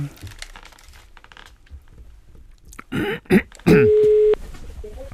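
A phone call being placed: a few quick clattering dial bursts, then a single steady, fairly loud ringing tone lasting under a second, with faint background murmur before it.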